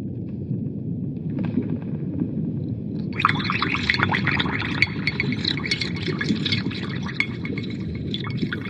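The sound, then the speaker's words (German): A witch's cauldron, set up by the witch to brew a magic potion, bubbles and gurgles over a steady low rumble, the thick popping of boiling liquid swelling louder and busier after a few seconds and churning on without pause. “die Hexe setzte ihren Kessel auf, um den Zaubertrank zu bereiten.”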